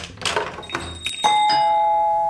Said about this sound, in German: Ja, die nächste Kundin ist auch schon da. Ding Dong,